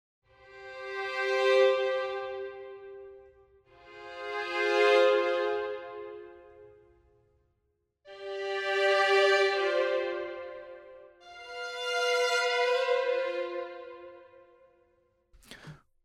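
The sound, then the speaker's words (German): Violins play a slow descending line of four long, swelling notes, each rising and fading smoothly, with no voices, ending in a brief click. “Und wir hören mal bei den Geigen rein, die machen das Ganze natürlich auch.”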